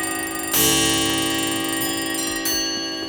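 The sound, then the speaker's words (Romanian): Several clocks and bells, recorded one by one by a sound engineer in antique shops in London and then synchronized together, ring and chime in a dense, bright clash, with fresh strikes at intervals layering over long ringing tones; loud, no voices. “Clopote și ceasuri.”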